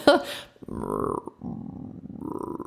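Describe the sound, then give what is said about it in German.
A person imitates growling bowel sounds with their voice to demonstrate them for patients, producing low, gurgling, rumbling noises in a few uneven bursts, fairly loud. “Und natürlich bedeutet es nicht jedes Mal, wenn man diese knurrenden Darmgeräusche hat, also dieses ich mache das dann nochmal meinen Patienten vor, ja, damit bitte?”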